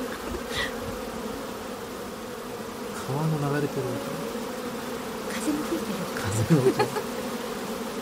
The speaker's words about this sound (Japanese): いや皆さん実はこれは、はい、蜂の、まあ、集団なんでしょうね蜂の音なんです蜂の羽音というのかなもうそれを聞いたらああっていうね想像が膨らんできた方も多いかもしれませんね。これ蜂の音なんですね。